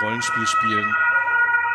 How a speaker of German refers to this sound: ja, ah, Polizei oder ist ein Krankenwagen? Das ist ein Krankenwagen. Hast du das Fenster noch offen? Äh, ja, aber es kam jetzt nicht von mir. Nee, es kommt auch vom Krankenwagen.